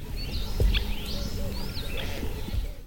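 birds chirping

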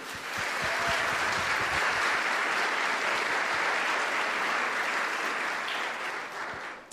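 audience applauding

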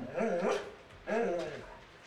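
dog barking

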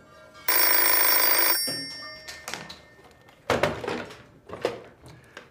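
incoming phone call ringing

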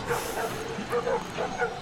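dog barking

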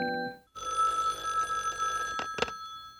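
telephone ringing

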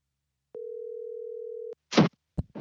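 telephone dial tone

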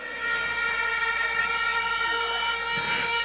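police siren sound effect

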